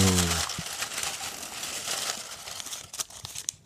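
rustling paper slips

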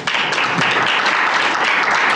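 audience applause

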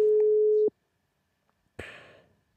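telephone ringing tone

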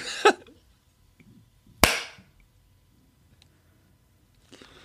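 single hand clap

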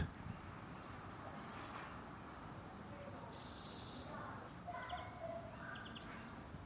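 birds chirping

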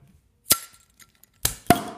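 beer bottles being opened

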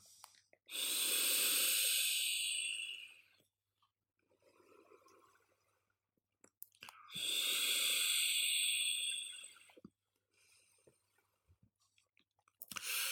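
vaping

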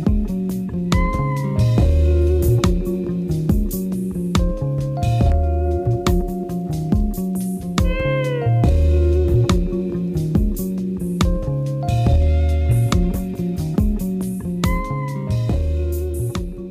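short music interlude

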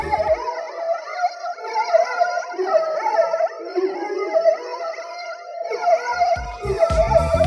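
whale song

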